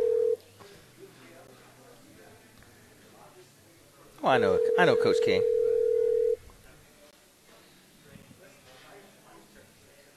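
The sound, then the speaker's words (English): A telephone line tone sounds briefly at the start, then returns as a loud, steady electronic tone lasting about two seconds, with people talking quietly before and after it; a phone call to someone in Marion, Indiana, that goes to voicemail. “You talk to him since you know who's, who's on the phone line here.”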